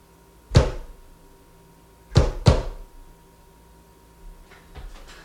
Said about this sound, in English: knock the wall one time, rub your belly, then knock twice.